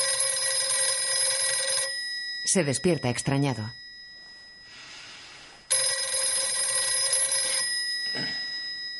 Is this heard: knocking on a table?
no